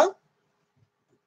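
A single quick, sharp sneeze bursts out at the very start, then everything falls silent for the rest of the moment.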